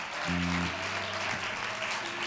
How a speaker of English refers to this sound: You can do it in this church. Would you clap your hands for the Lord? Hallelujah.